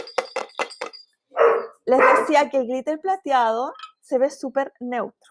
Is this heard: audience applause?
no